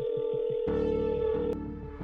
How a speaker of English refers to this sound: I dialed Priya, my hands shaking as I held the phone.